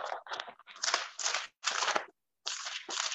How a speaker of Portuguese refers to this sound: Esse barulho de página da Bíblia, gente.